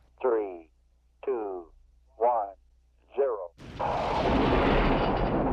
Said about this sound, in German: Das Getöse von Raketen, so hoch wie ein zehnstöckiges Haus. Denn hier wird der Saxeford Weltraumbahnhof gebaut.